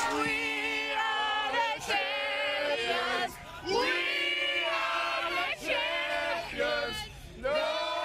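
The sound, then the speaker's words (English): The world champion Chiefs football players sing loudly and raggedly together into a microphone at a downtown celebration, their voices strained and off-key, with a large crowd cheering and whooping in the background. “they're better ball players than they are singers.”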